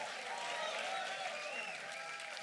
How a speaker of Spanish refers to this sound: Vamos, dale un fuerte aplauso. Allá a las 7, dale un fuerte aplauso.